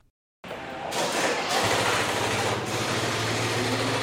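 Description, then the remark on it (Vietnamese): After a brief silence, an old motorbike's engine starts up during an exhaust emissions test in Hanoi, Vietnam, and keeps running steadily, a loud buzzing drone with a low, throbbing hum underneath. “Ghi nhận về những ngày đầu tại Hà Nội thí điểm đo kiểm tra khí thải xe mô tô, xe gắn máy cũ đang lưu hành.”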